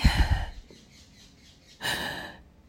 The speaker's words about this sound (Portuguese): E esses pássaros e essa mexeira aqui na frente. Essa minha varandinha. Tão magnífica. Tão pequenininha e tão grande, tão expansiva